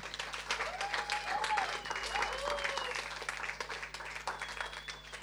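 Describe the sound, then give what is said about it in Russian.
A concert audience applauds a young musician steadily for about five seconds, dense rapid clapping at an even loudness, with a few whoops and a whistle rising over the crowd. “Еще раз аплодисменты.”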